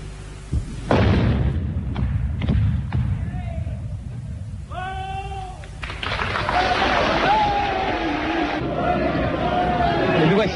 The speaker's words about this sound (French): C'était le 14 août 1962. Messieurs, dans deux minutes, la dernière explosion marquera l'achèvement de la percée du tunnel du Mont Blanc.